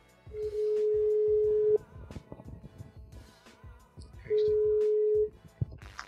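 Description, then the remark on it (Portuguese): A phone's outgoing ringing tone sounds twice, each a long steady hum of about a second separated by a longer pause, with faint background clatter underneath. “e agora para terminar, e como também já foi feito uma vez, gostava que ligasses a quem gostavas que viesse este podcast. Ok, então vou ligar.”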